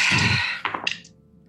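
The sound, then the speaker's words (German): A brief rattle, then several quick clattering knocks as dice tumble across a hard tabletop and settle, rolled for a spell in a tabletop role-playing game, fairly loud, with no one speaking. “Ich hoffe, du hast die Würfel getauscht.”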